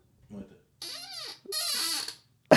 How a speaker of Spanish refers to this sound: Quiero, quiero grabar la silla cómo se mueve. A ver, espérate un segundo.